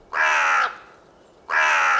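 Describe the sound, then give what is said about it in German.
Two loud, harsh raven caws ring out, each lasting about half a second, separated by a short pause, with no other sounds around them. “Elf Raben saßen auf einer Stange und blickten ihn an.”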